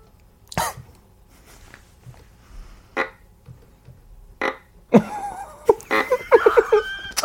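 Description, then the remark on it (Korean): Pig grunting: a few short, rough grunts spaced apart, then a busier run of squealing, snorting grunts near the end, fairly loud, with no talking. “어, 이제 또 돼지 소리 있는데.”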